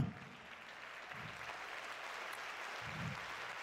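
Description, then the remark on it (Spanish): An audience claps steadily during a religious service giving glory to God, a dense, continuous wash of applause, with occasional low thumps underneath and no voices standing out. “Uh, fuerte ese aplauso, por favor.”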